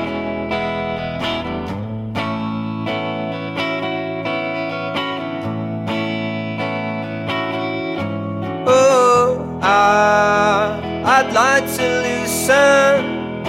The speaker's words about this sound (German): Um, now, of course, we would like to hear a song of yours.